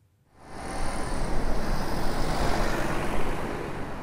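A steady, dense roar of a continuous stream of road traffic on the B14 at the Neckartor in Stuttgart fades in within the first half second and holds, with cars and heavy trucks rumbling past continuously, loud, with no voices.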